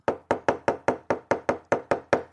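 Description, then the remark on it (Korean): A knife chops rapidly on a cutting board, about eleven crisp, evenly spaced strikes in quick succession, close and clear with no voices. “우리 집 강아지는 도마 소리만 나면 자다가도 벌떡 일어나 제발 밑에 쳐다봐요.”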